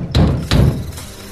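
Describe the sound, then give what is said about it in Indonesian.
Two heavy, booming thuds of someone pounding on a door, loud, spaced about a third of a second apart, with a low resonant boom trailing after each blow. “Kedoran pintu semakin keras.”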